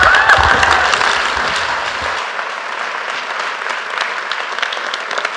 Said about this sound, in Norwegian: La oss gjøre en skikkelig klapp.